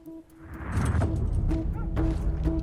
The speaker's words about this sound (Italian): Già sentite spari, già sentite. Parliamo di Run All Night con Liam Neeson.